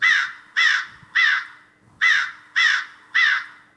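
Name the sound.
crow cawing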